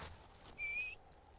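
A single clear, high whistled call from a bird flying over, a sustained slightly rising tone lasting under half a second, heard outdoors against faint background noise.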